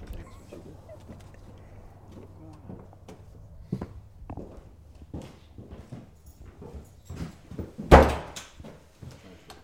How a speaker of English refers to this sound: This is the historic front door. The door to this building is, is the original to the building.